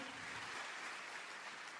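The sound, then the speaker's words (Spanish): A crowd applauds in a steady, dense wash of clapping that carries on throughout, moderately soft, with no voices standing out. “Alguien tiene que aplaudir más que eso si lo cree.”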